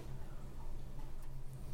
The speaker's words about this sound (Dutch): Laten we als allerlaatste keer klinken. Plastic. Tikken en klinken.